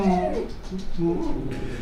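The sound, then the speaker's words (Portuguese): A dog whines and whimpers, a few high, drawn-out tones rising and falling over a couple of seconds, with steady background noise underneath. “Desculpa, pessoal, temos cachorro.”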